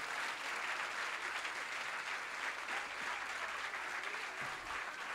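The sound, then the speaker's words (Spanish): An audience claps steadily for about five seconds, a dense, even wash of many hands with no voices rising above it. “Si tú le vas a dar un aplauso, si tú, si tú le vas a aplaudir, apláudele bien.”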